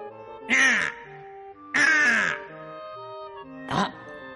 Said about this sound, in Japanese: この鳥、僕をさらって、この塔に閉じ込めた鳥だ。